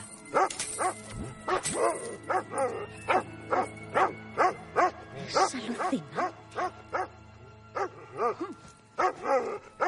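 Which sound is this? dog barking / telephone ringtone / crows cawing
dog barking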